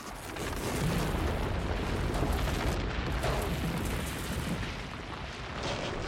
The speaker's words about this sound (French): Euh, on monte le matin plutôt à partir de 7 heures euh, en haut du domaine skiable et donc euh, on fait partir des avalanches avec de la dynamite.